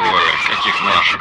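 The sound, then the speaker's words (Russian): Loud, continuous roar of vehicle engines with a harsh, screeching edge as vehicles drive toward the speaker, steady for about a second before easing off, while a voice speaks briefly over it. “Вы слышите звуки их моторов, наверное.”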